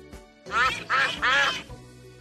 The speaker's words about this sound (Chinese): 鸭太太和孩子们开心的叫起来：“嘿嘿嘿嘿！”